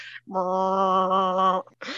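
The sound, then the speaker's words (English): A person imitates the sound of a bagpipe they could not get to play properly, with one strained, nasal, droning tone held steadily for over a second, fairly loud, followed by a brief breath. “Were you successful in playing the bagpipe? No, though?”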